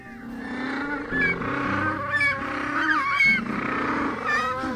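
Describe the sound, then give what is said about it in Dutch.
Raucous, braying bird calls overlap continuously, a colony of penguins honking like donkeys, loud with several voices layered over one another. “Ook een van de eigenaardige dingen is dat ze balken als ezels. Ze maken een heel eigenaardig geluid.”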